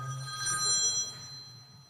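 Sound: mobile phone ringing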